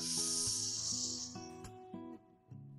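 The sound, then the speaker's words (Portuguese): A long, airy breath drawn in for about a second and a half during a guided diaphragm breathing exercise, hissing steadily before fading, with soft sustained musical tones continuing underneath. “Vamos juntos de novo? Um, dois, três, inspira.”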